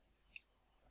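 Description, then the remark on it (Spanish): A single short, crisp click from a ratchet wrench held in someone's hand, fairly quiet, standing alone against a faint background hiss with no one speaking. “yo tengo la, llave esta en mi mano ahora, la llave que suena así.”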